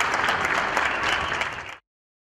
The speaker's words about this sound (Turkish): Yani meclise gelip sağlıkçılar için alkış yapalım